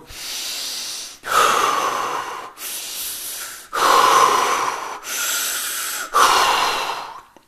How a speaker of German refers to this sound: Noch etwas, was mir sehr hilft, ist diese Technik mit Breathwork, also mit tiefen Atemübungen zu verbinden. Das bedeutet, du atmest einfach sehr tief ein und sehr tief aus, klingt ungefähr so.